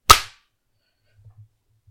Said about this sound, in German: Nochmal klatschen in 3, 2, 1. Ja. Ja. Ja. Hat sich ausgeklatscht.